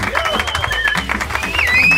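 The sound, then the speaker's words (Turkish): A live audience applauds steadily, dense clapping with crowd voices mixed in and a thin whistle-like tone rising near the end. “Yavaş yavaş ölümüme yaklaşıyorum diye alkışladınız mı siz beni şimdi?”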